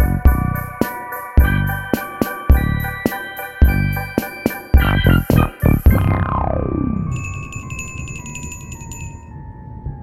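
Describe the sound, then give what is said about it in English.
A bright bell is struck repeatedly in a quick, uneven rhythm for about six seconds, its ringing tones stacking up, then a falling swoop and a soft high chiming tail fade out. “you heard the bell, which means today is a lab episode.”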